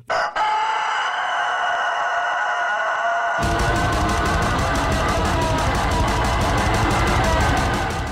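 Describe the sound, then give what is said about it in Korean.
A chicken's loud, strained crowing and squawking opens alone, then continues as lead vocals over a sudden wall of distorted guitars and rapid, pounding drums in a heavy metal song. “예전에 다기 보컬인 밴드도 있었어요.”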